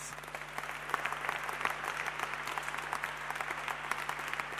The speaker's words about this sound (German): Gebt mir doch einen dicken Applaus.